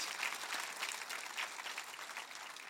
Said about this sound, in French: Les œuvres de Christ, ah, vous devriez applaudir la la Pentecôte afin que l'œuvre de Christ.